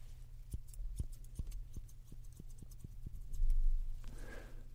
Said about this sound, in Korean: 앞머리는 어떻게 좀 더 컷하시겠어요? 음, 네, 알겠어요. 조금만, 아주 조금만 잘라드릴게요. 네.